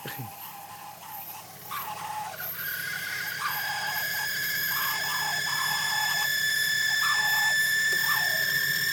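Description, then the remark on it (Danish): A reel-to-reel tape machine spooling at speed, its thin, high whine gliding slowly upward in pitch and growing louder over a low mechanical rumble, with a few brief squeaks along the way. “Det er en lyrekteret fire, der spoler.”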